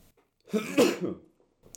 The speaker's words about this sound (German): Jetzt musste ich mal eben kurz niesen, Entschuldigung.